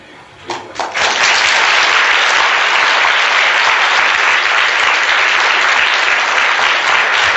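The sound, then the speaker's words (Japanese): An audience applauds to send off a speaker at the end of a talk. A few scattered claps swell into loud, steady, dense clapping that carries on evenly to the end, with no talking. “皆様拍手でお送りください。”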